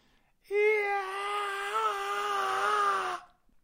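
A woman lets out a single sustained high-pitched wailing scream, steady and siren-like with a slight wavering pitch, lasting nearly three seconds before cutting off, with no talking over it.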